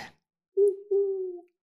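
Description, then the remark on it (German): An owl hoots twice, a short low note followed by a longer drawn-out one, clear against otherwise quiet surroundings. “Und das ist die Eule.”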